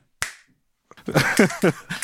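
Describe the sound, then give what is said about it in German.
A single crisp finger snap rings out and fades quickly, followed after a short pause by a stretch of voiced laughter. “Vielleicht wird das jetzt so mein, mein neues Ding halt, dass ich immer schnippe.”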